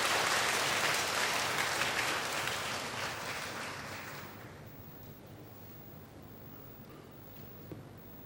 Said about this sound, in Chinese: 请咱大家用掌声热烈来欢迎因，就在中间。